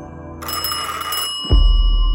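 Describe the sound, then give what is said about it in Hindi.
An antique telephone bell rings loudly in a living room for about a second, a bright metallic trill, then cuts off as a deep low thump and rumble take over. “लेकिन फोन लगातार बज रहा था और ऐसा लग रहा था जैसे उसकी आवाज और तेज होती जा रही थी”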